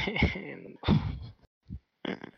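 Several loud, heavy breaths blown into a microphone, rough gusty exhales with a sighing, slightly voiced quality, coming in uneven bursts with short pauses between them.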